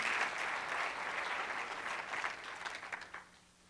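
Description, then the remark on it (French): An audience claps steadily, a dense wash of many hands that holds for a few seconds and then thins out into scattered last claps. “Oui, ça, ça mérite une acclamation parce que c'est ton identité en Jésus.”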